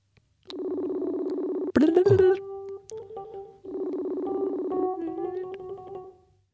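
A Messenger call's ringing tone sounds twice: two steady, buzzy mid-pitched rings over a second long each, separated by a brief pause, with a short rattling clatter right after the first ring.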